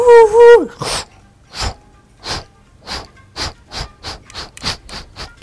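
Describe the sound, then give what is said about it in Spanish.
A voice imitates an 1800s steam train: a rising whistle-like hoot, then rhythmic breathy chuffs that start slow and speed up, about a dozen bursts in all. “Imagínate un tren del 1800. Sí. Esos que hacen...”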